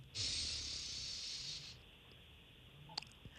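A single slow, steady airy rush of breath drawn in for about a second and a half during a breathing exercise, inhaling to a count of four, then fading into quiet room hiss with a couple of faint clicks.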